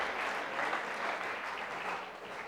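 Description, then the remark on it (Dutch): Steady applause from an audience for the actors of a play, a dense crackle of many hands clapping at an even, moderate volume throughout, with no voices standing out. “Een groot applaus voor onze toneelspelers.”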